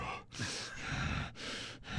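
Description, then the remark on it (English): Heavy, rasping breaths, about four loud inhale-exhale cycles in quick, steady succession with brief pauses between them, and no talking. “Heavy breathing.”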